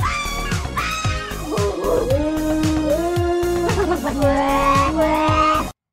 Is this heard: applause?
no